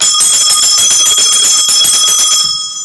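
A bright metallic bell, rung to start a stock market segment and repaired the day before, rings loudly and rapidly for over two seconds, a rattling burst of strikes with sustained high tones, then cuts off and fades into silence.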